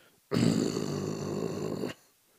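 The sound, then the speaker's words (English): A voice imitates a zombie with a single sustained, raspy throat growl, made like clearing the throat and then holding it, lasting about a second and a half, loud and gravelly with a rough buzzing texture, starting and stopping abruptly. “so the trick is with it um, think of it like you're clearing your throat right you clear your throat but then you hold it right”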